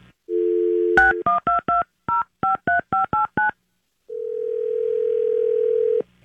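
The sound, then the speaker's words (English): A steady dial tone, then a quick run of about nine touch-tone beeps as a phone number is keyed in to place a prank call to a man's wife, followed by a long, even ringing tone. Loud and clear, with no voices. “how about I call from Brainerd and say okay, that you are left a bag there?”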